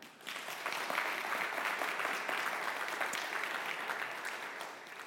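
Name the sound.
audience clapping hands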